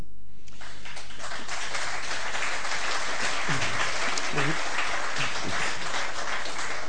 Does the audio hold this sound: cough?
no